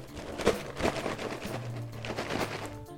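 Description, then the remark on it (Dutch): A container of small hard snacks is shaken repeatedly, producing a steady clattering rattle in rhythmic bursts for about three seconds, with no voices. “Ik denk het snacks.”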